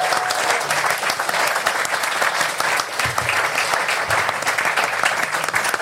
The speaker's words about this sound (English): Um, can we give a round of applause for Clyde's um, contribution?